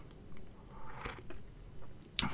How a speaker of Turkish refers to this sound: Çayımdan bir yudum alacağım.